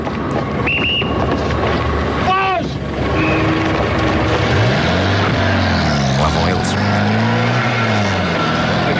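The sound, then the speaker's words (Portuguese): The engine of a green Mercedes getaway car roars under dense background noise after a robbery, revving up and down in pitch as it pulls away toward Avenida Berlim and the airport, with a brief higher squeal early on. “altura do assalto é Mercedes, cor verde, matrícula DM0192 e foge direção Avenida Berlim, aeroporto.”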